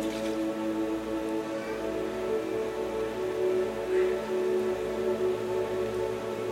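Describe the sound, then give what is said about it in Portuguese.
Water pours steadily into a glass for several seconds, a continuous close-up splashing trickle with a faint ringing tone, and no voices over it. “eu consigo derramar agora essa água em mim porque foi derramado água aqui.”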